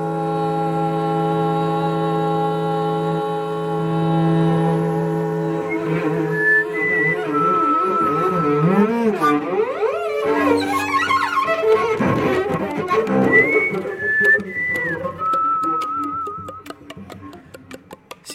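A slow melody from a flute and a cello: a low, sustained bowed line opens, then a higher, wavering flute part weaves over it, steady and moderately loud, with no voices.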